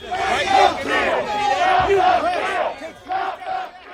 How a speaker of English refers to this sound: Some people celebrating, cheering, honking, literally dancing in the streets.